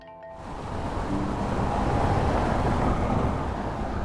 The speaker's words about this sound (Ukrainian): Автомобіль зупиняється навпроти центрального входу Харківської обласної адміністрації.